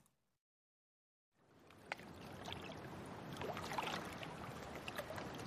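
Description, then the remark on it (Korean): After a brief silence, close incoming tide water laps and sloshes steadily against a stone step just outside a door at dawn, with small splashes breaking through a continuous wash. “문을 열고 나오자 발목까지 차오를 듯 가까이 밀려온 밀물이 대돌에 부딪혀 찰랑거렸다.”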